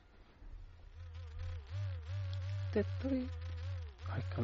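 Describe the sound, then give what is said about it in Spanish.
A steady electric buzz from a vibrator set to sound mode runs the whole time, its pitch rising and dipping in a wavering, tune-like pattern following a song being played, with a few brief clicks near the end. “Y si me lo das por aquí, lo ponemos en función sonido. Aquí ah, también canta, el vibrador canta.”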